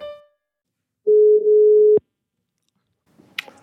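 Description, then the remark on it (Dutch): A single steady telephone ringing tone, a low, even hum lasting about a second, cut off by a click before faint line noise follows, as a phone call is placed to a diabetes expert. “Bellen met een diabetesexpert.”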